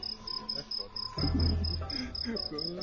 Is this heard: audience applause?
no